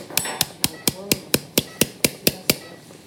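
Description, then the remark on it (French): During surgery, a hammer taps a bone anchor into a pre-made hole on the lateral humerus with about ten sharp, evenly spaced strikes in a quick steady rhythm, fairly loud, with no talking. “Une fois qu'on a fait le trou pour l'encre, on l'insère à l'intérieur avec un marteau.”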